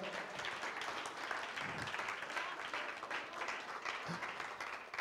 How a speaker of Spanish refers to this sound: Dar un aplauso al Señor en esta hora.